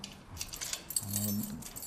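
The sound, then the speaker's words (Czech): Keys jangle and rattle in a lock in short metallic bursts, then the second door, a security grille, of the Church of the Holy Trinity in Zdoňov is pulled open with a low, drawn-out groan, all at a moderate level with no talking. “Otevírá druhé dveře, bezpečnostní mříž.”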